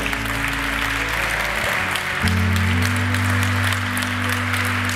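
Sustained crowd applause fills the space, a dense steady wash of clapping from many hands, with low sustained musical tones humming underneath throughout.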